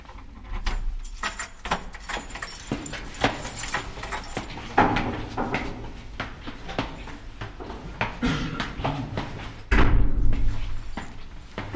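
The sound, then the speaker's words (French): Keys jangle and clink in a lock, followed by a secret door in a basilica, leading into the roof space, being pushed open with a heavy thud near the end; fairly loud, with scattered knocks and rattles throughout. “oh la porte secrète.”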